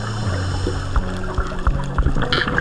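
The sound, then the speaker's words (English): Underwater sounds of a scuba diver on a coral reef at Kiritimati, an atoll in Kiribati due south of Hawaii near the equator: a steady low hum and swishing water, dotted with soft thumps and clicks, with a short bubbly hiss near the end. No one speaks. “She's diving on a coral reef in Kiritimati, which is an atoll in Kiribati, due south of Hawaii, almost right on the equator.”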